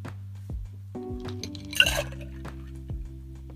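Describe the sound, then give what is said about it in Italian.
Ice cubes clatter into a cocktail shaker while a daiquiri is being made, a series of hard clinks and knocks with one louder rattling burst in the middle, fairly quiet, with no talking. “Aggiungiamo il ghiaccio”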